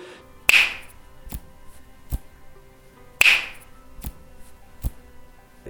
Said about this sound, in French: Ouais, je claque des doigts et, et après, je peux avoir des mouvements de main, comme si je balayais ou que j'enlevais quelque chose.